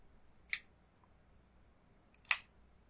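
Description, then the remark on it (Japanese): Two sharp metallic clicks of the lid of a Japanese-made Gear Top oil lighter snapping shut, about two seconds apart, the second louder and brighter, with near silence between them. “しかもこれ、2016年の12月やったかなにできた、ライターで、これね、すごいね、いいんですよね。音しないんですよ。開ける音が。今これ開け、開けました。で、閉めるときは割とします。こんな感じ。”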